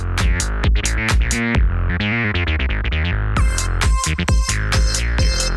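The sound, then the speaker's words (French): An electronic melody made by watermelon and melon slices on a table wired to electrodes and electronic connectors that turn impulses into sound: quick, buzzy synth-like notes with bright harmonics in a steady rhythm at a loud level with no voices, getting denser and brighter in the final seconds. “Merci à Nico pour ce son de pastèque”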